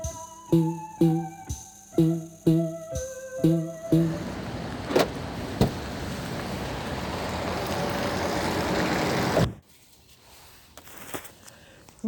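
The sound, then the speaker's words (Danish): From inside a car parked in a parking lot, a steady hiss of rain on the roof follows a series of repeated chime-like tones, then cuts off abruptly into a much quieter interior. “sidder jeg i en bil på en parkeringsplads, og det regner.”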